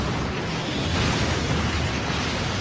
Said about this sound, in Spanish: Esos son los explosivos.